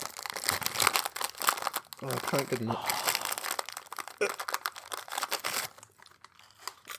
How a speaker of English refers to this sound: Okay, now that, that sounds like it came out of a uh, of a plastic packet, which makes me think that Maybe it's some kind of cracker. Is it a cracker of some kind? I think these are crackers, right? They look like crackers.